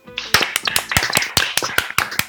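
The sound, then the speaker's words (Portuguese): A short round of clapping given to wish a woman a happy birthday: a quick, slightly uneven string of sharp, loud hand claps that keeps going for a couple of seconds, with no voices. “Vamos dar uma salva de palmas aí para ela, por favor, galera.”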